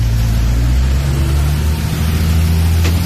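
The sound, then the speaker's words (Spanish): A heavy bus engine in a video recording drones steadily, a deep rumbling hum with strong low tones and a constant, slightly fluctuating roar as the bus drives along. “Mire, el piloto de ese bus va bien bolo.”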